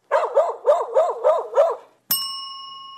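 A dog barks five times in a quick, steady run, loud, followed right after by a single bright ring of a bell that lingers and fades.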